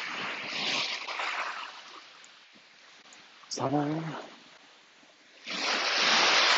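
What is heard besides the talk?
calm sea waves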